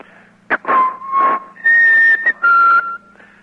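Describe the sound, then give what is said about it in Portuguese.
A person whistles a short, birdlike melody imitating the song of the uirapuru bird, once the opening jingle of a news program: a quick chirp followed by several sustained, wavering notes rising and falling in pitch, over faint background hum. “É, com vinhetas, a nossa abertura, por exemplo, era o canto do Iramuru. Eu vou até, sem, sem sonoplastia, que diretamente da El Salvador, eu vou assobiar para você se lembrar desta marca dos titulares da notícia.”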